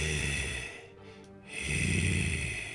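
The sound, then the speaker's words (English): Deep, heavy breathing into a phone from a phone booth on a city block: a long raspy breath, a brief lull, then another loud, rough breath, with no talking. “Deep breathing and a greeting ensues.”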